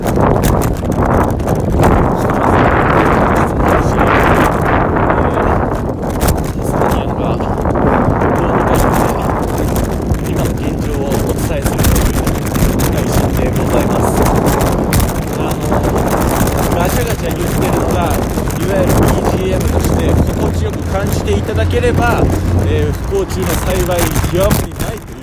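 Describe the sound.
Steady wind buffets a microphone while a road bike is ridden toward Umeda, with rhythmic rattling and clatter throughout and a man talking over the noise at times as he streams live while riding.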